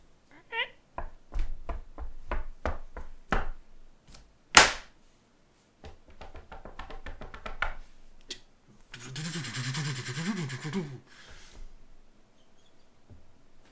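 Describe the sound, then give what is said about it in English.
Foley sequence: a run of quick footstep taps as someone walks over, one sharp car-door slam as they open the door, some rattling handling noises as they get in the car, then a wavering, revving engine sound that seems voice-imitated as the car drives away. “Actually, I'm gonna get up and walk over and get you know open my door, get in my car, and drive away.”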